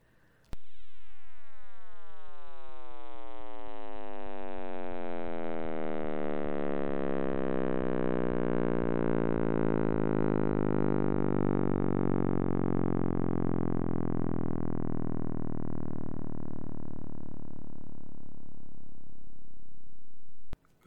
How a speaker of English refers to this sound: that sound is the sound that every single radio telescope in the world picks up no matter where they're pointed.